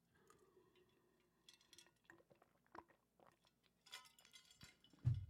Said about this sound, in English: Okay, we're gonna take another uh, sip of truth juice.